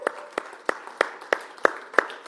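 An audience claps together for Jesus in a steady, even rhythm, about three sharp claps per second, moderately loud, with no talking.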